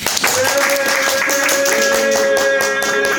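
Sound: hand clapping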